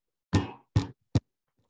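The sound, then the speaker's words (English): Three sharp metallic clanks, like pots and pans knocking together; the first two ring out briefly and the last is a quick clipped hit, with no voices. “It's not my fault we cook all the time in pots and pans or this glass.”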